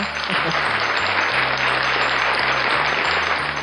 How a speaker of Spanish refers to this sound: Así que vamos a darle un aplauso.